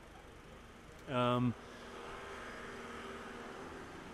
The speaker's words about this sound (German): Jetzt stehen wir, ähm, sind wir weitergegangen, wir, ihr hört im Hintergrund vielleicht die Autos.